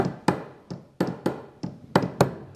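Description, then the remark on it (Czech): A telegraph key tapping out Morse code, the letter A (dot dash), as a series of about eight sharp mechanical clicks in an uneven rhythm, with no voices. “to je tečka čárka, je Ačko, jak možná si pamatuješ ze skauta nebo pioníra.”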